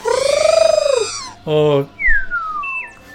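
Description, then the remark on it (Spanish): A voice mimics a droid's expressive noises: a warbling tone that rises and falls, a short buzzy burst, then whistle-like gliding beeps sliding downward, fairly loud. “Porque está, está diciendo con, sonidos, se comunica con ruidos, con estas expresiones que, aún así entendemos, ¿no?”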